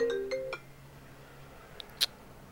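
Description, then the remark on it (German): A phone ringing tone: a few quick electronic beeps at the start, steady and mid-pitched, then quiet with a couple of sharp clicks. No one speaks. “Ich rufe dich wieder an.”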